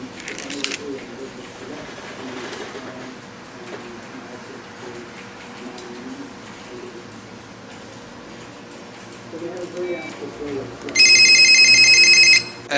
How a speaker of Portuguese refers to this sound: Mas é, foi evoluindo até chegar quase naquele que era o flip, né? Que, quer fazer, abrir, fazer aquele som característico. Ah, é, se o editor puder nos colaborar com botar o som agora aqui, só pra poder botar a nostalgia tocando aí.